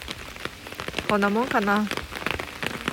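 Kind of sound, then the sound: nature, heavy rain falling outside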